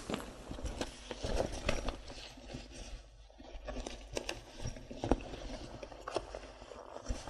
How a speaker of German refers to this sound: Das Päckchen Sahne aufmachen.